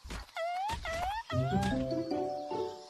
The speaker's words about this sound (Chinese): 你听，我听到一只是天堂的小鸟，那是它特别的歌。